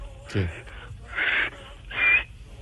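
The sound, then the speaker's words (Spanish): A person imitates a male bird's call with a short throaty note followed by two breathy, whistling hoots, evenly spaced, with no spoken words. “Entonces andaban de el pájaro le decía”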